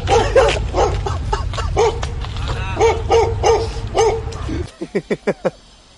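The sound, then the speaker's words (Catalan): Several dogs in a park's dog area bark fiercely and repeatedly, trying to attack, over a low rumbling background, a fast overlapping volley that ends in four sharp, evenly spaced barks once the noise drops away. “Bueno, mira, tot just, ara, ara parlàvem de gossos.”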